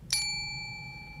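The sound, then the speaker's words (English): A single bright ding from a small diner bell bought at a Dollar Tree store, struck once and left to ring out with a clear, sustained metallic tone that slowly fades. “I bought a little diner bell at the local Dollar Tree near us, and I plan to use it in some recordings for videos”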